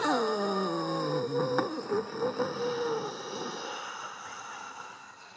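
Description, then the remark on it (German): A voice imitates a drawn-out, falling moan for a few seconds, then trails into breathy, heavy exhaling sounds, fairly loud with no other talking. “Ach, neben mir fängt jemand an zu stöhnen. Und unter mir, da atmet jemand schwer.”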